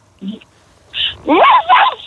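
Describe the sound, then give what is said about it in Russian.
A person imitates a dog barking, starting with a couple of short, quiet yelps and then giving louder, strained woofs in quick succession. “Вот теперь верим. Что, собака дома есть, да?”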